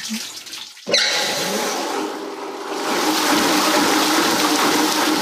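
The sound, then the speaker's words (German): Water gushes into a paper pulp machine, where dry cellulose is soaked and kneaded to make pulp for papermaking, starting abruptly after a brief quiet moment, then a steady loud rushing and splashing fill that swells slightly and continues without letup. “Da wird jetzt Wasser zugeführt.”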